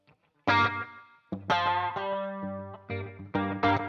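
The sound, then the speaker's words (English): Distorted electric guitar chords struck in a loose rhythm, played through a delay tweaked with the flanger on, a swirling flanger sweep and delay trails smearing each hit, loud with no voices. “I, I just kind of tweaked my delay to kind of do something similar with the flanger on.”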